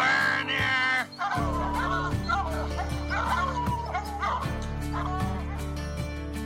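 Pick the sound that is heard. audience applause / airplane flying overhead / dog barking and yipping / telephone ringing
dog barking and yipping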